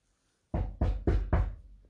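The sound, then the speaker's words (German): Four firm knocks on a wooden door, evenly spaced, each with a dull thud and short ring, after a brief silence. “Bald hernach klopfte der Wolf an und rief”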